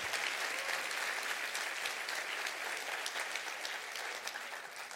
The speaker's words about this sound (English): Clap your hands all over the house and rejoice for that.